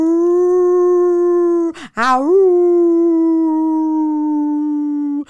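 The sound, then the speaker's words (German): A person imitates a wolf with a long, sustained howl, as a challenge to howl for 30 seconds without laughing, breaking off briefly near the middle with a rising swoop before holding the steady, loud tone again alone. “Jaule 30 Sekunden lang wie ein Wolf, ohne zu lachen.”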